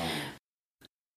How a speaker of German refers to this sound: Sorry, das war mein Hund, der schnarcht neben mir.